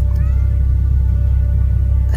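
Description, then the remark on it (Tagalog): A long, drawn-out cat meow with a slightly wavering pitch, sounding eerie over a heavy, constant low rumble that fills the background for the whole moment. “takot na takot kami ni, ni Tata Mike dahil ang mga pusa sa paligid ay sinusundan kami”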